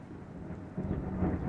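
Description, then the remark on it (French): Thunder rumbles low and heavy over steady rain during a great storm at night, swelling louder partway through, with no voices present. “une grande tempête s'élève de la nuit.”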